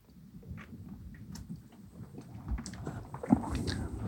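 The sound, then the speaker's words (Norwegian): Quiet mouth sounds of someone slowly sipping, not shooting, a strong vintage alcoholic drink, with soft slurps and swallows over a low rumble and a brief sharper click near the end. No one speaks. “Men ja, vi kan ta en slurk først.”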